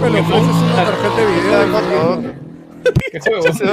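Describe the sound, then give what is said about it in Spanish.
A motorcycle engine revs loudly for about two seconds, its pitch rising and falling, then cuts away as people start talking. “Se metió una moto dentro de la rato, ah, jato, weón. Unos piques, ¿sabes?”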